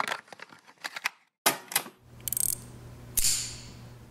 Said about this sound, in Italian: questo bellissimo suono, è il suono del rinvio, ovvero quando tu arrivi con la tua bella cordina e ti assicuri al, al rinvio per fare il prossimo pezzo.